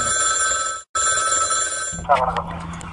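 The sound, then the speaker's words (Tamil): A telephone rings on an outgoing call from Rathnavani community radio in Coimbatore to the Trichy Collector's office: two long, steady electronic ring tones split by a brief pause, followed by a click and muffled line noise as the call seems to connect. “so அதுக்காக அவங்களுக்கு நம்ம கால் பண்ணோம் அந்த ஃபோன் கான்வர்சேஷனை இப்போ நம்ம கேட்கலாம்”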